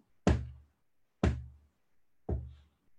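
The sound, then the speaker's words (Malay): Three heavy, booming knocks ring out at a slow, steady pace, each a sharp thud that decays quickly into silence: the rhythmic knocking signal of a pulsar star rendered as sound. “At-Tariq itu bintang yang mengeluar bunyi ketukan.”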